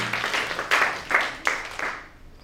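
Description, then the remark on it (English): A crowd claps together in a dense, steady burst of applause with a few louder accents, then the clapping thins and fades out over the last half second. “Come on, clap your hands for your uniqueness.”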